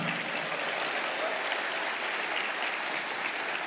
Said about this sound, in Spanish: ¿Cuántos dicen amén? ¿Cuánto le dan ese aplauso al Señor?